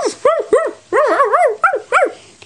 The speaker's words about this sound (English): It was a pack of wolves! They had red eyes and long white teeth. They growled at Floppy.